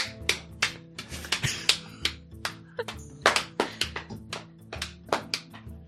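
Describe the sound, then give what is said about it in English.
Quick, evenly spaced footsteps tap along steadily, each step a short sharp click, over a low steady tonal hum in the background. “That's that's footsteps, not me slapping my own thighs.”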